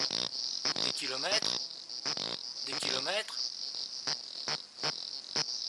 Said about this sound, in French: Et quand je me suis aperçu euh, que ce pas des, des, des, grenouilles que je voulais voir, mais que c'était des cigales qui étaient de genre et d'espèce nouvelles.